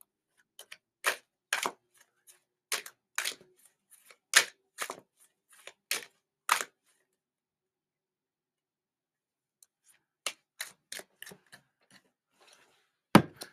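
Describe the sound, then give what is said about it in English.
A person's own playing cards being shuffled, heard as a run of crisp, snappy clicks in an uneven rhythm, pausing for a few seconds before another quicker burst of card snaps. No talking. “I like the sound of my cards shuffling.”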